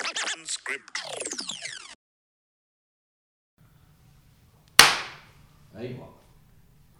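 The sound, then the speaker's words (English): A single loud, sharp hand clap cracks out of near silence over a low steady hum, decaying quickly, followed by a brief voice. Earlier, a burst of scratchy, warbling noise plays for about two seconds. “That's the best clap I've done all day.”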